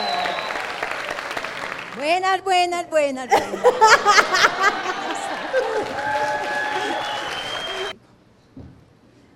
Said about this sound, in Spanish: Un aplauso